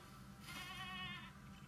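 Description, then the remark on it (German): A single bleat from a burning goat in a video game, a wavering, nasal cry lasting about a second, heard fairly quietly over a low steady background hum with no talking. “Die Ziege brennt.”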